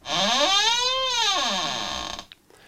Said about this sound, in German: Knarrende Tür.